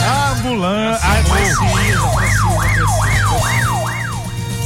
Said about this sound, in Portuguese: É ambulância.